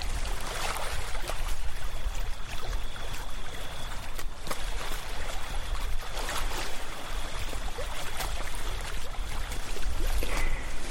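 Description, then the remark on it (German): Gentle water of the Sea of Galilee laps and splashes steadily against a beach in the early morning, a continuous wash of small waves with brief louder splashes, and no voices. “Hört mal gut hin, so klingt der See Genezareth, wenn er in den frühen Morgenstunden an den Strand plätschert.”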